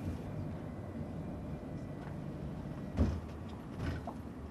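A bus engine rumbles steadily as the bus stops to let its passengers off, then a sharp burst of air and a clunk mark the doors opening, followed by a softer hiss as they settle.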